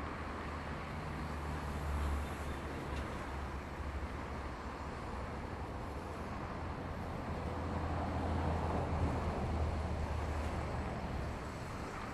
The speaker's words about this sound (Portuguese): Dá um frio na barriga sentir esse balanço enquanto um fluxo enorme de carros passa embaixo de nós pela Avenida Brasil.